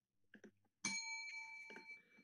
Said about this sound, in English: all right, I'm going to ring this bell and you may go at it.